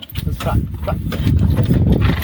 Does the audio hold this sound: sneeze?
no